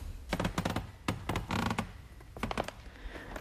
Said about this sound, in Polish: Jak może słychać, podłoga w tej sali niesamowicie klimatycznie skrzypi.